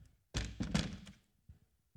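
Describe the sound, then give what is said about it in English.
A third chair is grabbed, shifted and set down, making a couple of heavy wooden thunks in quick succession, followed by a few faint knocks as it settles. “I'm going to go ahead and stop right there and grab this other chair because we got to have this other chair.”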